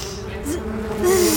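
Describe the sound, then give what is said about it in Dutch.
A steady, droning insect buzz fills the short stretch, several wavering tones layered like a cluster of wasps hovering, growing slightly louder toward the end, as wasp-people swarm out of a castle. “Cooper, Helena en de andere wespenmensen zwermden het kasteel uit en volgden de geur van de zoetigheid”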